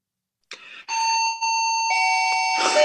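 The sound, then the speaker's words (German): A doorbell, rung by the mail carrier making a delivery, rings with bright, sustained electronic tones, a few chime notes ringing out clearly and loudly for a couple of seconds with no talking. “Jetzt klingelt die Post.”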